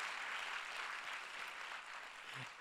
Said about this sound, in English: Come on, let's clap together one more time. Let's thank God. Come on, we can be louder than that. A big, awesome church clap to start the service.